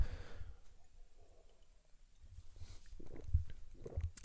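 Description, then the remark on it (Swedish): Someone takes a sip of water: soft slurping and a few quiet gulps and swallows, with faint mouth noises and no talking. “Egentligen, egentligen, för mitt eget bästa, jag börjar fan ta en klunk vatten.”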